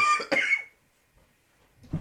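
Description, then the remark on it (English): A person on air coughs and chokes: a harsh cough bursts out in a couple of quick explosive hacks, followed by a short pause and a softer throaty catch or clearing at the end. “No, I, I, I, could I could do you the favor of jumping in when I hear you choking and coughing.”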